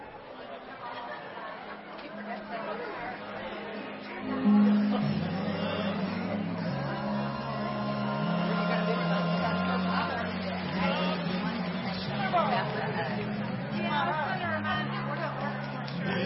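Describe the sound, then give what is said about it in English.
A steady hubbub of many overlapping voices fills the space as a gathering stands and greets one another during a worship service, a continuous babble with no single voice standing out. “So uh, at this time, we're just going to stand and we ask that we just greet each other.”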